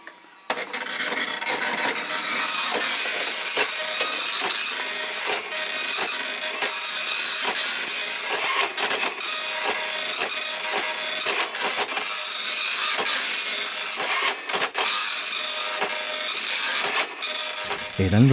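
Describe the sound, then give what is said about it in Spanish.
A dot matrix printer chatters away steadily for about eighteen seconds, a harsh, buzzy rasp broken by brief ratcheting pauses between passes, fairly loud with no voices. “Las primeras impresoras fueron todas de, de punto.”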